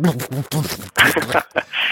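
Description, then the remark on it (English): A voice imitates garbled Skype call audio, making choppy warbling syllables broken by abrupt cutouts and hissy bursts, loud, for about two seconds. “testament to the fact that that phones work really, really well is the fact that we're using it right now because VoIP sounds like this, eh, eh, eh, and Skype sometimes sounds like this.”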